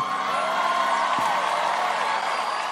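A crowd cheers and applauds steadily, a dense, loud wash of clapping and voices that holds at an even level from start to finish without breaks.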